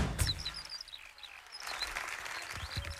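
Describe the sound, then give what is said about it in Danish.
A skylark sings far off, a faint, continuous stream of high, twittering warbles and trills, with a soft low rumble of outdoor background noise underneath. “Det er en sanglærke.”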